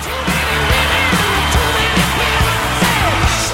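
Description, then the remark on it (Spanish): A loud, steady wash of crowd applause and cheering, played as a sound effect, with scattered whoops and yells rising above the clapping throughout. “Para, pará, cortala los aplausos. No entiendo por qué tanto aplauso.”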